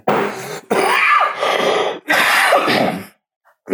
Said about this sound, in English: God hit me with that cough, you motherfucker, how dare you make jokes?